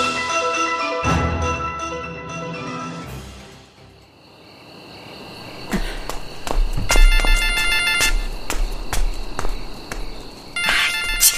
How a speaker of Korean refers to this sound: 참나. 아이 얘는 코앞에서 왜 전화질이야? 아들이고 뭐고 귀찮아 죽겠네.